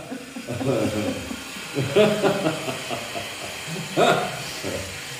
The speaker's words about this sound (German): So. Ihr seht, hier wird gearbeitet, es ist eine Baustelle und ähm, da darf die Geräuschkulisse nicht fehlen.